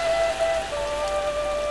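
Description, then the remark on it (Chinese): Steady rain falls in a continuous, even hiss with no pauses, while a faint sustained tone lingers underneath. No one speaks. “忽然下起雨来，他站在树下。被风吹，被雨淋，难受极了。”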